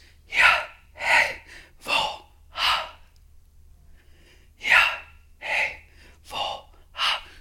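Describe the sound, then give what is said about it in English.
A voice imitates breathing to sound out the name of God (Yahweh), with a series of breathy, airy inhale and exhale sounds, four in quick rhythm, a short pause, then four more, fairly loud with no words. “One Jewish theologian talks about how, in many traditions, they believe that the name of God literally means to breathe. It means breathing.”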